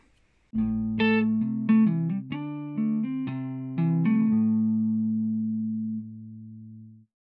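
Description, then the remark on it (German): A short electronic instrumental interlude with sustained synth chords and a bright, plucked melody on top, ringing out for several seconds before fading to silence, with no voices, played as a pause for doing a German grammar exercise. “Und wie immer bei den Podcasts kommt jetzt eine Musik, aber ihr macht jetzt auf Pause Macht die Aufgabe, schreibt die Sätze ab mit, der, mit dem richtigen Adverb und hört euch danach die Lösung an.”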